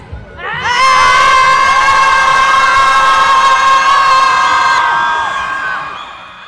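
A large crowd at a protest screams together at 4 p.m. in one sustained, loud collective yell lasting several seconds, many overlapping high voices rising at once and then fading out.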